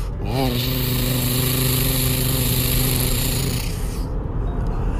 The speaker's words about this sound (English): And so they got into their monster trucks and rode up the mountain.